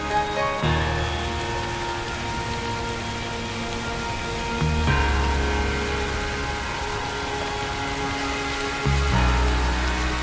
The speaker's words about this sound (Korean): 그런가 하면 앞이 안 보일 정도로 쏟아지다가 또 금방 멈추고 모퉁이만 돌아서도 다시 장대비가 내리는 등 오락가락 했던 것도 이번 비의 특징입니다.